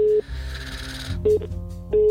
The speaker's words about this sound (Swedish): Nu ringer jag igen, jag känner mig stalkig nu. kom igen, kom igen, kom igen. Svara.